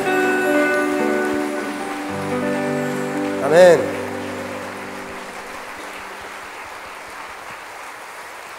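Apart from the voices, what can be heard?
audience applause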